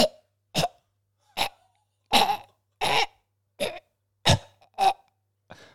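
A loud run of about nine harsh, strained coughs and gagging hacks, spaced in short irregular bursts, of someone choking on a beechnut stuck in the throat, the last one weaker and trailing off, with no talking.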